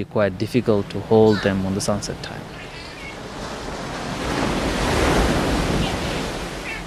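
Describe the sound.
A brief voice at the start gives way to a steady rush of wind and ocean surf while crossing a channel in the ocean on a dolphin-watching tour, the broad roar swelling louder toward the end and staying constant.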